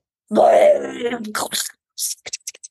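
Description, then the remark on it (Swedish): A voice imitates a death metal growl: a loud, guttural, strained groan lasting about a second and a half, followed by a few short breathy hisses and clicks. “vi kan ha heavy metal eller så death metal eller vad det nu heter som bara är så här”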